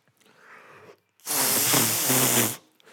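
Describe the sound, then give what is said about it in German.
An imitated armpit or mouth fart: a single loud, sputtering, buzzy blast lasting over a second, preceded by a short stretch of soft rustling noise. “Auf jeden Fall, Achselfürze, auch gerne Mundfürze.”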